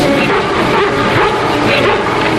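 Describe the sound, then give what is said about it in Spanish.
A female long-haired collie barks several times in quick succession, loud, over a dense, constant background of other sound. “Cómo esta historia canina enganchó a varias generaciones a la pequeña pantalla, siempre pendientes de las aventuras que vivía y de sus ladridos inconfundibles.”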